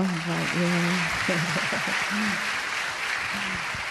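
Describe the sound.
A crowd applauds steadily for several seconds, a dense wash of clapping that stays even throughout while a voice speaks over it near the start and again briefly toward the end.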